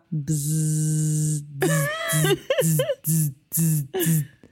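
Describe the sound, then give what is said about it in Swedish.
A voice imitates a buzzing vibrator: one long, steady droning hum, then five or six short, choppy buzzing bursts in quick succession, fairly loud and with no other talk. “Men det kan också vara en elektrisk tandborste.”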